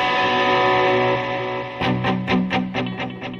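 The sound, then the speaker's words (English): An electric guitar run through effects, distorted and shimmering, plays an original song strummed rather than finger-picked: it holds a ringing chord, then breaks into a steady run of about eight loud, rhythmic strummed hits. No one speaks. “Normally I, fi- I finger pick the song, but I, I can actually do some uh, do some what do you call it?”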